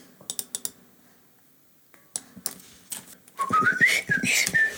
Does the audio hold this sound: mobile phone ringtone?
no